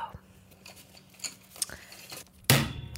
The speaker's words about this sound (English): so here's here's a, pen clicking. I just I clicked the pen on.